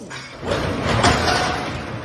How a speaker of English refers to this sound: That's the parents trying to break the garage door, which they did during the middle of the fucking video. They're they're fucking you know the automatic garage doors are not meant to be held and pulled down by your arm, but yeah